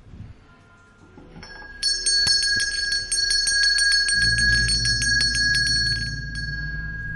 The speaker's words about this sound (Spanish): Una campana, una casa sola y desde su cama alguien la toca.